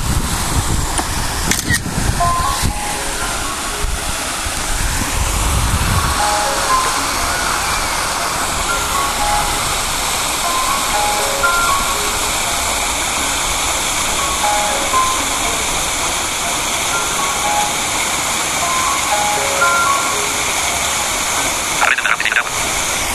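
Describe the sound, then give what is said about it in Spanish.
Water from a fountain splashes steadily and continuously, a fairly loud wash of sound that fills the whole stretch, with a few faint chirps and brief knocks at the start. “Estamos frente a la fuente de agua.”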